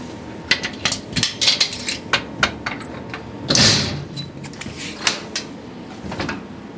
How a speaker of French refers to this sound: Bien sûr, on va vous ouvrir le coffre-fort.